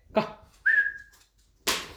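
animal, dog making noises

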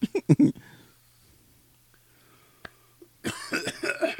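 human body sound, sneeze

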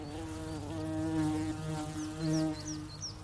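insect, buzzing insect

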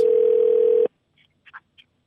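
signal or alarm, telephone dialing and ringing

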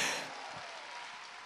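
crowd, audience applauding

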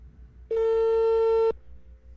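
signal or alarm, telephone call tone

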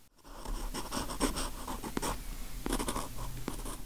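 household object, pen writing on paper

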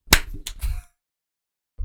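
human body sound, hand clap

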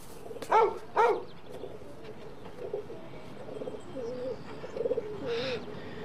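bird, pigeons cooing and fluttering

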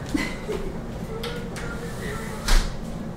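household object, door being closed

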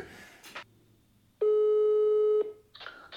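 signal or alarm, telephone ringing tone

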